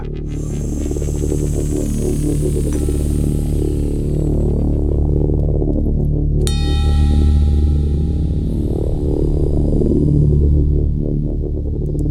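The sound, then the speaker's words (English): Synthesized bell tones ring out over a deep, pulsing bass drone, a couple of bright strikes whose harmonics hang and fade slowly in a long, washy reverb tail. “with a long reverb.”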